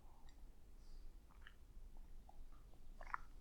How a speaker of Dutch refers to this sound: En ik neem weer even een slokje van mijn thee. Ik merk dat ik een hele droge mond heb momenteel.